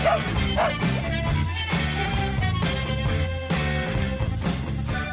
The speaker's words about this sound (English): and the dog behind the man, our executive producer, and everyone's buddy, Butch much.